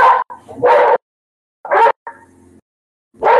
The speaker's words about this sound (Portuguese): E o meu então, cachorro. O seu, seu cachorro tá bravo aí. Tá bravo, tá bravo. e vamos ver se ele acalma.